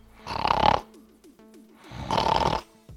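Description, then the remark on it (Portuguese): Someone imitates snoring with their voice: two long, raspy, rattling snore sounds separated by a quiet pause, fairly loud, with no talking. “Quando você ronca, é geralmente assim, né?”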